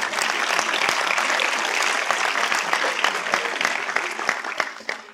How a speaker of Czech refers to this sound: on se mi na začátku omlouval, že jde na vlak, jo, takže eh, jo, tak můžeme zatleskat.